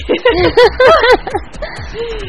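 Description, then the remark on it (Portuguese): A voice imitates heavy, out-of-breath panting: a quick run of voiced, huffing gasps, then softer breathing trailing off with a short drawn-out exhale. “Ai, a pessoa tá ofegante.”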